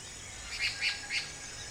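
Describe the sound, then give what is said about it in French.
Frogs croak in rhythm on a full-moon night: three short, high, chirpy calls evenly spaced against a soft, steady background hiss, moderately faint. “Les grenouilles braillent en cadence.”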